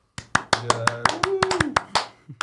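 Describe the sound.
A small group claps in quick, uneven bursts, about a dozen sharp hand claps close by, with a faint voice murmuring underneath.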